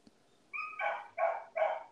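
A dog lets out a brief high whine, then three quick, evenly spaced barks, clear against a quiet background with no talking.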